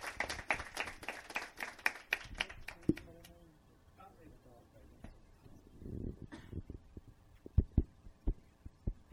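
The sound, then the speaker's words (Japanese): An audience breaks into a burst of applause, brisk, fading out after about three seconds, welcoming a guest speaker from Fukuoka Prefecture; low murmuring voices and a few soft thumps follow. “じゃ皆さん拍手でお迎えください”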